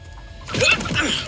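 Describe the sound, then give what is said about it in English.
After a brief near-silent moment, a chicken being chased by someone trying to catch it lets out a quick run of agitated, squawky clucks, fairly loud, lasting about a second. “Um, he's trying to catch a chicken while they talk.”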